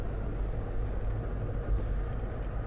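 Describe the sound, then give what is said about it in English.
A steady low rumble of a car engine and road noise while driving on a highway, constant and fairly loud throughout with no voices. “Sorry, I'm on the highway and my engine's going to get louder.”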